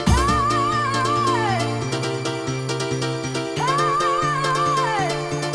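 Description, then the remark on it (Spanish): Loud, continuous house dance music with a steady four-on-the-floor beat, bright piano riffs and a wavering lead melody rising over a dense, bass-heavy mix. “Me encantan esos pianitos.”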